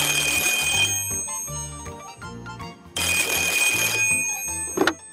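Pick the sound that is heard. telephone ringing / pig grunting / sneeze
telephone ringing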